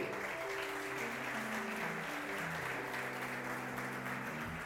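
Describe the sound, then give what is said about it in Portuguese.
A large crowd applauds loudly and steadily for God throughout, a dense wash of clapping with sustained keyboard chords ringing underneath. “Aplauda bem forte a Ele.”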